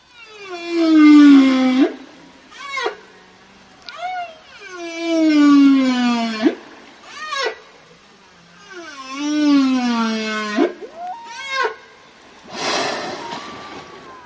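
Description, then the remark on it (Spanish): Humpback whale song: long, mournful moaning calls that swoop downward, separated by short rising squeaks and chirps, repeated in phrases and ending with a rough, noisy burst. Clear, no talking. “Entonces, escuchemos el canto de las yubartas antes de continuar.”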